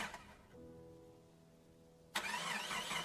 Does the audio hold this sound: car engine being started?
yes